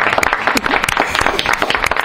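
Dense audience applause, many hands clapping rapidly in an irregular, sustained patter that stays loud and steady throughout, with no voices standing out.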